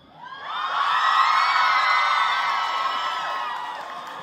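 A large crowd at the climate demonstration in Oslo on 22 March cheers and whoops loudly, a dense wash of high-pitched shouts swelling in quickly, holding steady for several seconds, then gradually tapering off.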